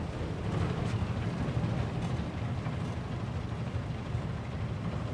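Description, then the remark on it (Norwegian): A steady, heavy low-frequency rumble of a Hurtigruten coastal ship's engine and propeller, heard in a four-berth cabin at the very back and bottom of the ship, directly above the propeller and just below the rope winches on the aft deck; constant and enveloping with no voices. “Rett over propellen og like under tauvinsjene på akterdekket.”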